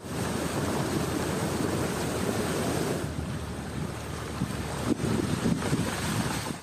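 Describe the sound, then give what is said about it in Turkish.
Strong storm wind roars steadily across the open Black Sea during a storm with rain, buffeting the microphone, with waves surging and crashing beneath it and a brief gust spike near the end; no voices. “Fırtına ve yağmur Karadeniz genelinde etkili oldu.”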